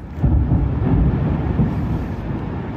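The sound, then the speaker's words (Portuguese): A ballistic missile explosion rumbles through, a deep, loud roar of low booming that rolls on steadily for a few seconds without fading, with no voices. “A caminho, uma explosão.”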